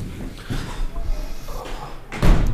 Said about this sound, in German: Aber man soll ich das Fenster zumachen.